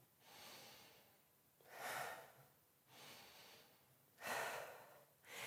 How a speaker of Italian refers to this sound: cioè gonfi il petto e sollevi le spalle, allora stai effettuando una respirazione che è una respirazione in realtà parziale, Cosa significa? Che quando respiri in questo modo riempi soltanto la punta superiore, il terzo superiore dei polmoni,